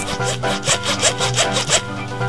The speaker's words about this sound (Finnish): juuri vetoketjua nylkyttää sitä omituisesti edes takaisin.